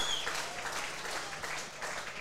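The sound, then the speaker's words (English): A stadium crowd cheers as Hayes kicks his third in an Eagles game, a steady, dense roar that holds at an even level for the whole stretch, with a brief high whistle-like tone near the start and no talking. “The crowd love it.”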